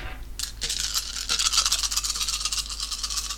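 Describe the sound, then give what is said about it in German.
A handful of ten six-sided dice rattle and clatter together in a dense, continuous burst of sharp clicks lasting about three seconds, fairly loud, with no talking. “so, ich habe jetzt 10 D6 hier”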